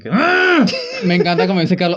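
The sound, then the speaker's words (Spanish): A voice gives a short, drawn-out imitation of an aroused moan that rises and falls in pitch, fairly loud, with speech starting right after it. “Y suena así como cuando tú te arreches”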